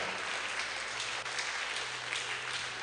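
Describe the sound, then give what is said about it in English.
Steady, dense applause from a crowd fills the whole stretch, many hands clapping at once in a continuous wash of sound with no voices on top. “Oh, if you are clapping, clap well.”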